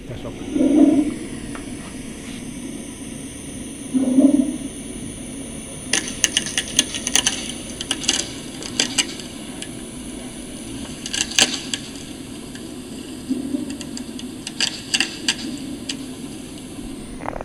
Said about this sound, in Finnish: No, mitä nämä äänet on? Eli nämä on sellaisia mielenkiintoisia, mitä saatiin viime vuoden maaliskuusta, maaliskuussa Pohjanlahdella äänitettyä, eli jääniä.